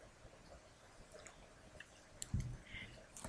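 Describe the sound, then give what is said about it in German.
Someone quietly sips a drink of water, with soft wet mouth clicks and a brief gulp near the end against a faint, hushed background. “Ich warte noch ein bisschen, trinke mal schnell einen Schluck Wasser dazwischen.”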